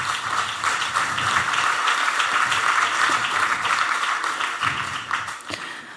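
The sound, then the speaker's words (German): Sustained audience applause, a dense steady wash of many hands clapping at even loudness for the full six seconds, tapering only slightly at the end, with no voices heard over it. “Das Applaus”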